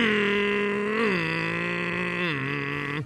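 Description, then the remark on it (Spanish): A voice imitates a motorcycle engine with a steady, buzzy drone held for about three seconds, its pitch stepping down twice like gear shifts, fairly loud, with no other talk. “¿Te molesta el ruido de mi moto?”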